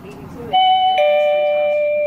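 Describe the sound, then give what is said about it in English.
A home doorbell rings out loudly on a Tuesday morning with a two-note ding-dong chime, the second tone lingering and slowly fading, just after a brief murmur of voice. “was awakened Tuesday morning to the ringing of her doorbell.”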